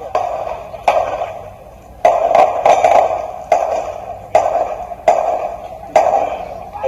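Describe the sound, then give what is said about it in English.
Roughly nine sharp gunshots ring out at irregular intervals, with a quick burst of several shots in the middle, each a loud crack followed by a ringing, fading tail. No voices are heard. “just got to be careful here with some gunshots.”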